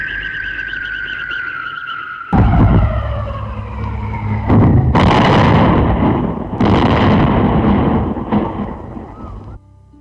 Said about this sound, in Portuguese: desapareceu de vista por trás da colina e deu-se a estrondosa explosão.